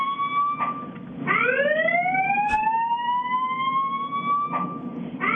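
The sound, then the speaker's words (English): A loud, piercing alarm siren wails continuously, its high harmonic tones sweeping slowly upward in pitch after a brief dip, with faint clicks and background hum underneath and no talking; the siren had been going off for almost an hour. “the screeching siren that was going off for almost an hour has stopped but um, you'll be happy to know I did record it”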